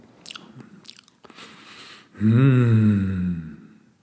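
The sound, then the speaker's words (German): Soft chewing and mouth noises come first, then a relaxed, sustained hum with a gently sliding pitch, fairly loud, fading out near the end; a person hums with chewing motions to express enjoyment of imagined chocolate. “Und diesen Genuss nutzt du jetzt mal, um dem ganz entspannt Ausdruck zu geben, durch ein so ganz entspanntes mm, hm, mm, hm, Kauen ein bisschen dabei.”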